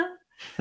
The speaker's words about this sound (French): Euh, à tes souhaits